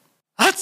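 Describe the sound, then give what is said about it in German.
A single sharp sneeze bursts in after a moment of silence, loud, a voiced catch followed by a hissing rush of breath. “Gesundheit …”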